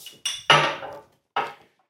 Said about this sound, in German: Ich, mal wir machen Glas in Glas.